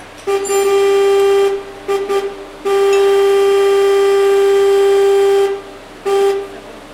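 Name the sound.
car horn honking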